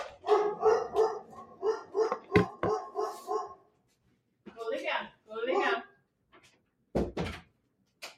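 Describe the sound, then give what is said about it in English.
Dogs bark in a rapid, steady volley of sharp yaps for a few seconds, then go quiet as voices talk and a brief thump sounds near the end. “Oh my gosh, those dogs.”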